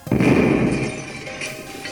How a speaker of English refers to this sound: whenever it comes to chairs and how to sit in them, you could say, We don't know what we're doing. How do you keep falling out of chairs?